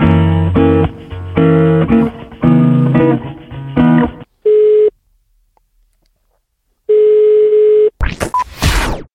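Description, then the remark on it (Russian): Tinny hold music on a call being transferred to an employment information centre cuts off as the phone system unexpectedly hangs up after a long wait, followed by two steady telephone beeps, one short and one longer, separated by silence, then a brief burst of noise at the end. “После длительного ожидания система неожиданно повесила трубку.”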